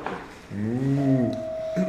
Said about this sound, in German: nee, das ist wieder das nervige Telefon.